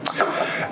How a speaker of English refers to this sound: Uh, bless you.